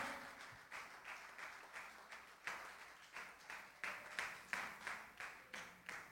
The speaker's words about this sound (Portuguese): Em nome de Yeshua Hamashia, vamos glorificar Ele de pé, vamos adorá-lo, aplaudi-lo, glorificá-lo, aplauda o Senhor, glorifica Ele.